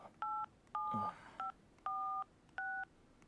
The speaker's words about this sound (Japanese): 俺の携帯からかければいいんだえっと090の